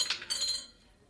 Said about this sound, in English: What that noise was, Cisco, huh? I think it was the roulette wheel upstairs. Then this must be the cellar under the gambling hall.